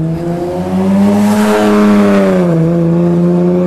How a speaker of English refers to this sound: Here comes a loud car.